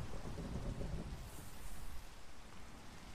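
Steady rain hisses throughout while a deep rumble of thunder rolls low underneath during the first two seconds, then fades, leaving the rain pattering on alone.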